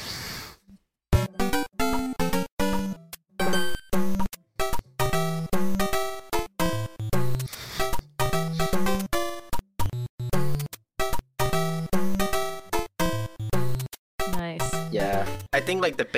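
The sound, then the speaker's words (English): Bright, buzzy 8-bit NES video game music resembling Super Mario 3, with bouncy square-wave melodies over a plucky triangle bass, played in short choppy phrases with brief gaps, loud, no voices. “This first clip is so Super Mario 3 NES.”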